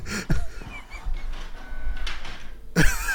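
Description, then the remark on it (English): A printer whirs and clatters as it feeds through its last load of paper, with mechanical bursts at the start and end and a steady hum in between, moderately loud, no talking. “I think it's finally done. It blew its last paper load.”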